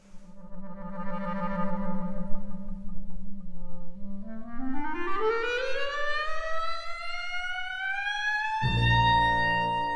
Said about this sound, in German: Ich finde, der Anfang klingt ein bisschen wie eine Sirene. Ganz allein beginnt die Klarinette. Vom tiefsten bis zum höchsten Ton verschleift sie die Noten miteinander. Es ist wie ein Signal.